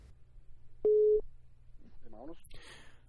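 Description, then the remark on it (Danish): As a call is placed, a telephone ringing tone sounds once as a short, loud, steady beep, followed by a brief faint voice-like sound and a burst of rustling noise. “Lad os ringe til en af dem, som ikke var så begejstret for os.”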